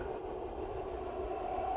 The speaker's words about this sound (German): Was hören wir jetzt aber hier vor allen Dingen Grillen, oder? Ja.